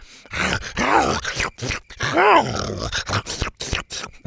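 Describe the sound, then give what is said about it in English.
A loud voice imitates a T. rex named Buck growling as it licks a boy's face: two drawn-out, wavering groaning growls with rough, breathy bursts between them, and no other sounds. “Buck growled and started licking him repeatedly”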